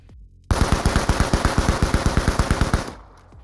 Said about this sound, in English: Arihant got one of the assailants in the neck with a lucky shot, which was most likely a bullet that ricocheted